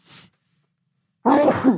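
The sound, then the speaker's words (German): A single loud sneeze bursts out after a brief breathy intake and a short pause, with a voiced, explosive 'achoo'-like quality and no talking around it. “Gesundheit.”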